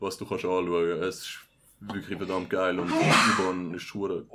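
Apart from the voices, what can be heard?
sneeze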